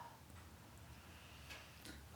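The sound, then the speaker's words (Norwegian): A fire crackles softly in a fireplace, with a few sparse, sharp pops over a steady low rumble. It's faint, with no voices. “Jeg kan høre at det brenner i peisen.”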